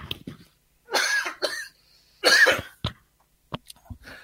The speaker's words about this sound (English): I'm sorry, I'm just getting over this uh, this this little little bit of a cold that I had, and um, and so I normally don't cough on the show, so I apologize. I don't have my mute button with me, so you're hearing it. My apologies.